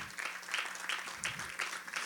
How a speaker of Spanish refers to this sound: Dele un aplauso al Señor por ello.